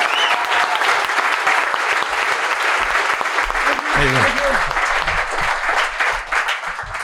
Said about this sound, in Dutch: Dus mag ik een keihard applaus voor de one and only Hans Simmel! Hans!